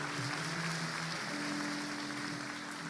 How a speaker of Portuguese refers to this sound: Você pode aplaudir Jesus mais uma vez? Aleluia.